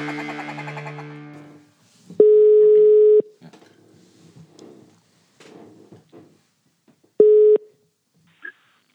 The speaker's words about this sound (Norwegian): Skal vi bare kjøre jingle og ringe Geir, da, eller? Ring, ring mannen!